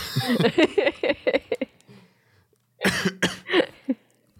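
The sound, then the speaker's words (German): A person coughs repeatedly, a run of short, harsh bursts, then a brief pause and a second cluster of loud, throaty coughs. “Ich hoffe, ich werde nicht so viel husten.”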